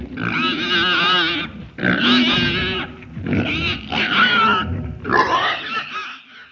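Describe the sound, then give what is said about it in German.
A pig grunts happily in four loud, drawn-out bursts, each a rough, wavering squeal-grunt separated by short pauses, with no talking. “stand Jule vorn am Bug, hielt die Nase in den salzigen Wind und grunzte vor Glück”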